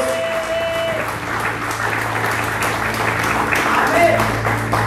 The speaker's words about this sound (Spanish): Alguien dice amén en esta mañana. Apláudele fuerte a nuestro Dios.